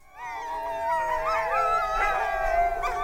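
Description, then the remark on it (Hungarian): Wild tundra ambience: several wolves or dogs howl together in long, wavering, overlapping tones, a steady mournful chorus that fills the whole recording with no talking. “Ezt a hűvöset, ezt szeretném mindenki fülébe és kabátja, kabátgallérja alá fújni ez most igazi tundra, ez az, egyébként most viccen kívül, ez a tundra hangja.”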